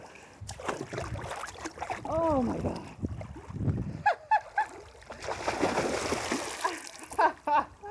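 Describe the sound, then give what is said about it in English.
Gentle splashing and sloshing of water as a person strips down and lowers into a shallow, cold, bluish gray mountain pond in New York's Adirondack Mountains, broken by sharp gasps and a startled exclamation, with a few brief splashes near the end. “I'm alone up here, so I strip down and lower myself into the pool of mountain water.”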